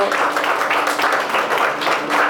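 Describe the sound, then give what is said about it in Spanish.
A crowd applauds a team of volunteers who served, including children, with dense, continuous clapping that stays loud throughout and no clear pauses, plus a faint murmur of voices underneath. “Y hoy yo quiero que ustedes le den un fuerte aplauso a este equipo fenomenal.”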